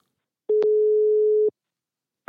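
A telephone ringback tone from an outgoing call to a political reporter at Expressen: one steady, clear electronic tone lasting about a second, then a pause before the next ring begins at the very end. No one speaks.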